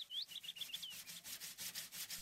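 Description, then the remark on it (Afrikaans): Sandpaper rasps across wooden planks for a home-built soapbox cart in quick, steady back-and-forth strokes, fairly loud, with a few faint chirps near the start and no voices. “As jy my help skuur aan die planke”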